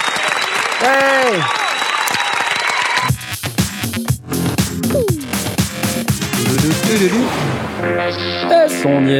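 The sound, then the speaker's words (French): Loud, dense applause lasting several seconds, a steady crackle of many hands clapping, with voices calling out and cheering over it throughout. “Allez, on applaudit”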